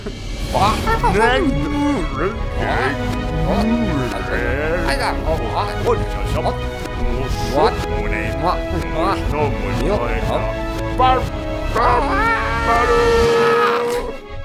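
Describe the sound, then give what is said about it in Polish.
Several voices sing a theme tune backwards, with warped, bleating swoops and sliding pitches. The singing is loud and continuous for the whole stretch, with no separate talk. “jedyny sposób, żeby musimy zaśpiewać w takim wypadku od tyłu, od tyłu Dragon's Den”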